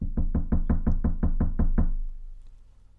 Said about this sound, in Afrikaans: Intussen staan Petrus nog buite die deur en hy klop en hy klop.